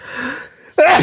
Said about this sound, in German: Oh, ich muss niesen.